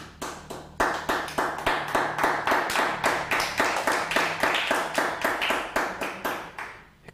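An audience at a religious service claps in steady unison as applause for God, sharp even beats roughly three per second, loud and sustained for several seconds before tapering off, with a low hum underneath and no talking.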